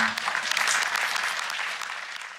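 An audience applauds to welcome a speaker at an evening presentation, a dense wash of many hands clapping that holds an even level for a couple of seconds before easing slightly toward the end.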